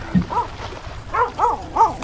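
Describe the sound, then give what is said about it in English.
A puppy gives four short, high-pitched yipping barks, one alone and then three in quick succession, fairly clear with no talking. “Oh, pup two. you're a good pupper.”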